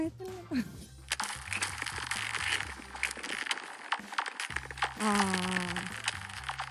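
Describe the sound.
Skates glide over very thin ice, giving off sharp cracks and ringing, laser-like chirps amid a steady scraping hiss. The sound is fairly loud, with what may be a voice briefly joining near the end.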